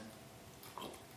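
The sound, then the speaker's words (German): A short, drawn-out vocal yawn from a very tired person, with a groaning, almost grunt-like tone, rising briefly near the end of a quiet stretch. No speech around it. “Übrigens, das, was ihr gerade gehört habt, war das größte Gähnen, was ich je gesehen habe.”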